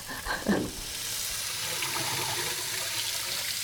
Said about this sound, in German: Ich jetzt einfach meine Hände unter das Wasser heben, also vor allem meine Finger. Bei mir ist es mehrheitlich die rechte Hand und vor allem der Zeigefinger und der Kleinfinger.